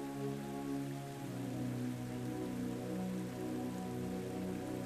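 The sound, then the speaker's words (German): Gentle, steady splashing of water in large water basins set in a wide open landscape of lawn, a soft continuous patter and trickle with a faint low hum underneath, no voices. “Große Wasserbecken schmücken die Landschaft. Ein leises Plätschern durchzieht die Stille.”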